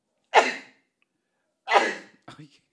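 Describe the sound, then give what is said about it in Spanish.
Two sharp, explosive sneezes about a second and a half apart, loud, followed by a brief breathy sound as the person catches their breath. “Tenía esos estornudos metidos en la cola.”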